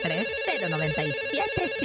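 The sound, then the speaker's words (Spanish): A telephone in the studio booth of radio station La Mejor 97.7 rings loudly as a listener calls in, a bright electronic ringtone with warbling melodic tones that fill the whole two seconds, with no one speaking over it. “Invita al público que marque, venga, teléfono en cabina.”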